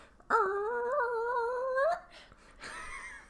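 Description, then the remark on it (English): A voice imitates a strange fridge noise with a sustained, wavering nasal whine lasting about a second and a half, loud and steady, followed by a softer breathy trailing sound. “The fridge is making very weird noises.”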